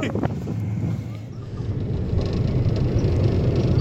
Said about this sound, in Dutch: Ik ben zelf eventjes helemaal in het thema van jullie voiceclip ook in een achtbaan gaan zitten. En als je goed luistert hoor je wel welke achtbaan het is. Inderdaad, het is de bobslee.